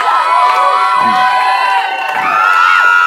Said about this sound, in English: Clap like you're about to be blessed. Shout like you're about to be blessed.